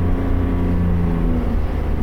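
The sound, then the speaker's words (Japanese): A steady rental car engine hums from inside the vehicle while driving on a business trip, a continuous low drone with faint tonal harmonics and no pauses, fairly loud, with no one talking. “ちょっといつもと違うエンジン音だと思うんですけど分かる人はねレンタカーです”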